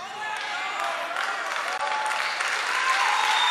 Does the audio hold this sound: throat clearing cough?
no